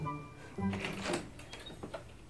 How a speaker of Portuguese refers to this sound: Nestor, então, abriu a porta devagarzinho.